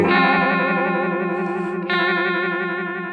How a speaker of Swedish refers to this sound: och sen om man då vill go wild och få så mycket effekt som möjligt och, och, och de här riktiga liksom, brutala effekterna, då ska man ha rate högt och depth högt. Och då kan vi börja gå tillbaka till någon form av chorusnivå.